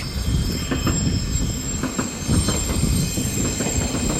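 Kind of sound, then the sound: vehicle, train passing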